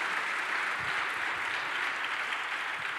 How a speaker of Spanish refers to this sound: Alguien dele un aplauso al Señor esta mañana, por favor.